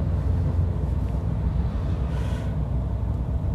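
A car engine hums steadily, with a continuous low rumble of motion and road noise throughout, as the car, stopped for about a minute in traffic near the Zatsuke 2-chome intersection on the way to a 7-Eleven, moves off again and rolls smoothly along.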